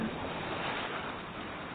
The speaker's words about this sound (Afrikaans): Derentyd was ek bewus van die water. Branders agter die duine. Om die klippe klots dit.